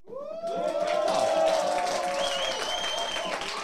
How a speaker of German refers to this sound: Das klingt gut. Und ich sehe auch, dass da hinten kräftig applaudiert wird.